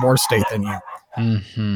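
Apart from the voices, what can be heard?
dogs barking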